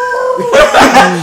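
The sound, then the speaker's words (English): A person voices a Dodge Hellcat engine: a steady, high whining tone that breaks into a louder, rougher, strained rev, brief, lasting just over a second. “oh yeah, this is how your air, your Hellcat sound like this.”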